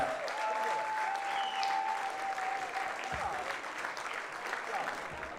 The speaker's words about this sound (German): Und gleich nochmal, damit der Applaus nicht abebbt,